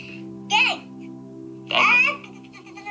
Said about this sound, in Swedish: Alltså det var bebisen.